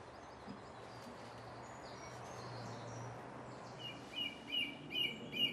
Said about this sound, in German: Oft singen zwar mehrere Vögel gleichzeitig, aber nie alle zusammen. Sie starten zeitversetzt, weil sie möchten, dass ihr Gesang auch gehört wird und nicht im großen Chor aller Stimmen untergeht.